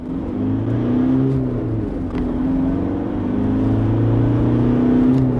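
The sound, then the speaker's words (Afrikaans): The 2.5 turbo diesel engine of an X-Rider bakkie (pickup) runs, its gruff, throaty drone holding steady and swelling slightly in pitch as it's revved gently; the engine is rougher and noisier than its rivals at idle and low speed. No one speaks. “Die X-Rider se 2.5 turbo diesel is grower en meer lawaaierig as sy teenstanders teen luier en laaspoed hoewel hy heel beskaafd op die oop pad loop.”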